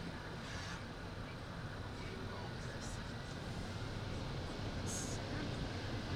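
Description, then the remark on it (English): A steady, loud roar of strong wind from a dust storm buffets around a car, a dense rushing rumble that barely varies, with a few brief hissy gusts rising over it. “This is, is a scary. dusty storm.”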